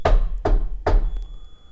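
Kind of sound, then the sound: household object, knocking on a door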